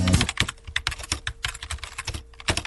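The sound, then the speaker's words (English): Rapid, steady keystrokes on a computer keyboard, clearly audible, forming an uneven stream of crisp clicks with no voices, as someone writes an online review of the yeast strain WLP 400. “Writing a review of WLP 400.”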